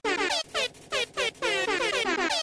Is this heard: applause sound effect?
no